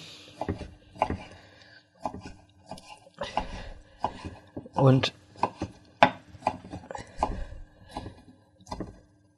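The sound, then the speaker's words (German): A knife chops steadily on a wooden board, irregular sharp taps in quick bursts as food is diced into fine, even small cubes for a ragout fin, with a brief spoken word in between. “Muss also wirklich feine, gleichmäßige Würfelchen”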